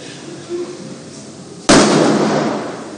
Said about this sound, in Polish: No ale tu przy tych wybuchach, przy tych e, artyleryjskich, hucznie grzmiących armatach, czy też odgłosach, miasta Varanasi, które to nadal wydaje się świętować festiwal Diwali, festiwal światła.